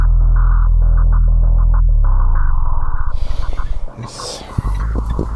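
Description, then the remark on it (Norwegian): Heavy rush-hour traffic in Norway, on the way out from Kripos, the national police unit: a loud, steady engine drone that turns into a throbbing rumble, then the broad whooshing hiss of vehicles passing. No one speaks. “Ja, da havna vi midt i rushen da, på vei eh, ut fra Kripos, eh,”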